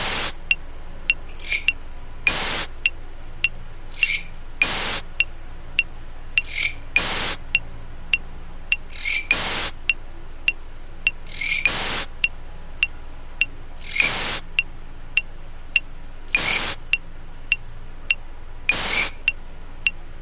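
A Mecopoda katydid's raspy stridulation chirps repeat steadily beside loud, regular white-noise metronome pulses roughly every two seconds; at first out of sync, the katydid gradually locks its stridulation to the metronome's rhythm.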